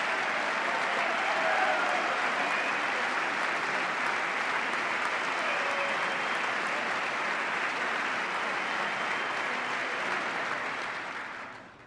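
Sustained audience applause at a speech, a dense wash of clapping hands that holds steady for about ten seconds before tapering off at the end.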